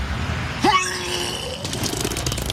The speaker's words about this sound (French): Oh là là Oh merde Qu'est-ce qu'il y a Vous êtes malade en voiture Non, non, c'est parce que quand je suis content, je vomis. Et je suis hyper content. Je suis hyper content.